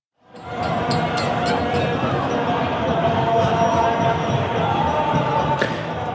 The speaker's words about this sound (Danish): Det her er så lyden af tusindvis af iranere, der sørger. De var en del af det begravelsesoptog, der foregik i byen Avas i går.